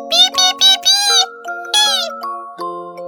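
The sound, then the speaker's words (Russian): A chick peeps loudly in a quick run of short, bright, high cries, then one more burst, all over a soft, ringing chime-like musical tone that lingers to the end. “Обрадовался цыпленок и запищал громко громко”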